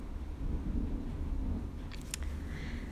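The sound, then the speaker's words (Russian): Deep, rumbling thunder rolls on for several seconds, with a few sharp crackling bursts partway through, sounding close and heavy. “Ой, вы это слышали? Надеюсь, что да, очень близко, очень громко, жесть.”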